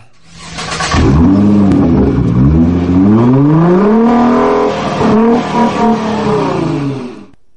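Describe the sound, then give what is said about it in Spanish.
A car engine cranks to life and then revs loudly several times, the pitch climbing and falling in repeated swells, with no voices. “Yo creo que es el momento, pues como siempre me gusta decir, de arrancar.”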